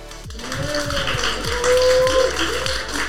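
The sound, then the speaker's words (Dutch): A crowd applauds four guests steadily for about three seconds, a dense wash of clapping with no voices on top, a faint whistle-like tone running through it. “Ehm, nu, eh, mag ik een hartelijk applaus voor onze vier gasten.”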